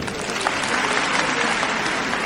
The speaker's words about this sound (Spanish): Y el aplauso del respetable.